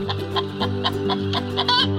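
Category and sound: bird, chickens clucking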